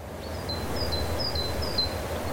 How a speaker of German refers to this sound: Vögel zwitschern. Die Vormittagssonne deckt die niedrigen Gebäude einer allen Anschein nach sehr gewöhnlichen spanischen Kleinstadt in warme Gelbtöne.